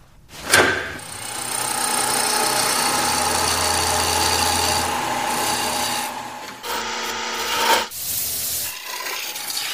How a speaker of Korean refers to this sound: 작업장에는 실세 없이 작업 관련해서 현장 소리가 들리고 있는데요.